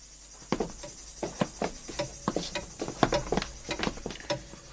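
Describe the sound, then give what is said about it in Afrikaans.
A grandfather clock in a long hallway of a farmhouse ticks loudly and steadily at night, sharp wooden clicks repeating about every half second amid quiet, with no one speaking. “Gaan dit jou vreeslik plaas hier klok snag so hard tik?”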